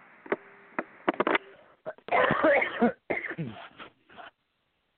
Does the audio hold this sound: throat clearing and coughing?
yes